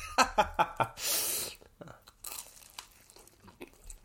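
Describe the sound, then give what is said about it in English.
Biting and crunchy chewing of a sausage roll: four quick crisp bites, a breathy rustle, then softer irregular chewing with flaky crackles continuing. “While we chew, I'll talk about my uh, sausage roll”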